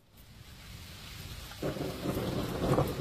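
Steady rain hisses throughout, then a deep, low rumble of thunder swells in about halfway through and grows louder toward the end. No one speaks.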